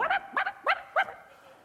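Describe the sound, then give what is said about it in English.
A person mimics a small yapping dog with four quick, high, sharp yips in a steady rhythm, fairly loud, then a brief quiet tail. “I love, I love all you guys with your little, with your little yip yap dogs, you know.”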